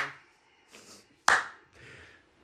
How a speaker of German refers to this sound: Kannst du noch lauter klatschen, damit alle einen Hörsturz kriegen.